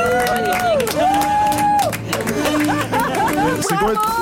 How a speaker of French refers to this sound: C'est une victoire. On l'applaudit.